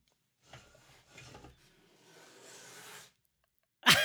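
A creaking door sound effect groans and rasps in a few drawn-out, wooden strains for about three seconds, fairly quiet, followed by a sudden sharp knock or thud right at the end.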